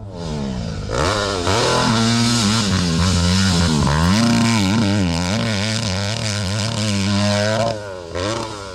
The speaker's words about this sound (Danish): årtusindskiftet begyndte alle de store mærker at indføre firtakter, da man mente, at der lå et kæmpe potentiale i den slags motor. Og en firetakter, den lyder sådan her.